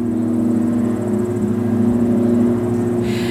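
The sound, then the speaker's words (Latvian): A steady, droning engine hum of an airplane passing overhead, holding an even, fairly loud level for the whole few seconds with no voices. “Vai šai nepilnajā minūtē dzirdamajai skaņai izdevās jūs pārliecināt, ka ir vasaras vakars, klajā laukā, tālumā reizes suns, garām aizbrauc mašīna un pavisam drīz pāri pārlidos arī lidmašīna?”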